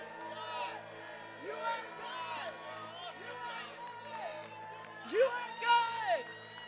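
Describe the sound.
A large crowd yells and whoops together in celebration, shouting praise to the Lord, in a sustained, overlapping roar of voices, swelling into louder, higher shouts near the end, with some scattered clapping underneath.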